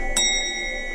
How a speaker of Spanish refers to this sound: ¿Qué significa esa alarma?